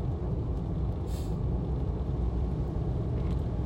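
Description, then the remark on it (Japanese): Steady road rumble from inside a car moving along a large two-lane road after snowfall, with one lane blocked by snow clearing: a continuous low drone of tires and engine with a brief hiss partway through, and no one talking. “今さらに大きい道路出てきたけどあのやっぱりどうしても2車線のうち1車線は潰れるよね除雪を”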